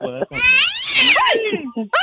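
A cat meows loudly: a short cry, then a long, drawn-out whining meow that rises and falls, followed by another brief meow.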